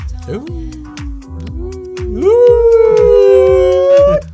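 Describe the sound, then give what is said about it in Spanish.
A person lets out a long, drawn-out wolf-like howl, the pitch climbing partway through and holding loudly, over a steady low thumping beat in the background. “Ah, ya tenemos lobos aquí.”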